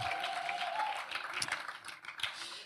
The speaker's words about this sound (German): Ähm, und auch, lass mal Applaus geben für die, für die ganze Worship Band. Vielen Dank für euren Dienst, so, so cool.